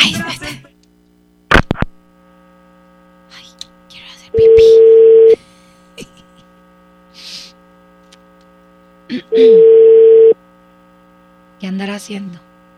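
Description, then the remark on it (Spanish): Two long, steady phone ringing tones sound about five seconds apart over a constant electrical hum as a man's phone is called, with short bursts of voices and a brief click between them. “Déjame marcarle en este momento”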